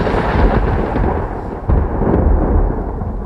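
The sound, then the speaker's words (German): A deep, rumbling roll of thunder fills the whole stretch, loud and continuous with a fresh crack-like surge partway through, no voices present. “Nächstes Bild, Donner.”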